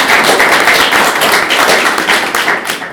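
Audience applause for Theodor Bergmann's 100th birthday, a dense, steady wash of many hands clapping at once, loud and sustained without pause, with no voices heard over it.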